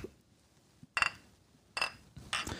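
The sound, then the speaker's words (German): Glasses clink together in a toast: three short, bright chimes spaced about a second apart, fairly loud against a quiet background, with no voices. “Prost.”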